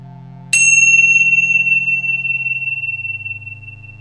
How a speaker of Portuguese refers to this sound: Escutando o som do sino como um convite para que sua mente venha para o momento presente.